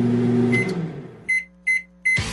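A microwave oven hums steadily, then falls quiet and gives three evenly spaced, bright electronic beeps, clear, with no voices present.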